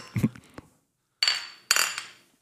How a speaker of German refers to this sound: Äh, Prost, oder? Prost.